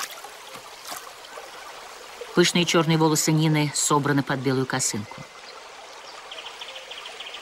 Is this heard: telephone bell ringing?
no